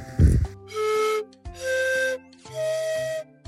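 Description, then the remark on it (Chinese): Three sustained flute notes, each held for under a second and separated by short pauses, stepping upward in pitch, preceded by a brief low thump. No one speaks. “”他想要玩他的笛子，”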